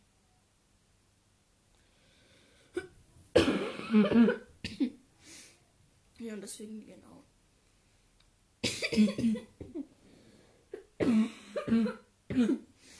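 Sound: repeated coughing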